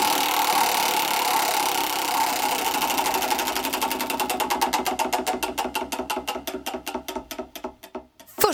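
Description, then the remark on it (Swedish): A spinning anecdote wheel, spun a second time, ratchets with rapid clicks that gradually slow and spread apart as it winds down, ending in a few final ticks. No voices are heard. “Vi snurrar en gång till.”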